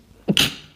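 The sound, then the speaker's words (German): A single sharp sneeze, with a short voiced intake followed by a bright, hissing burst that quickly fades. Nobody talks during it. “Gesundheit.”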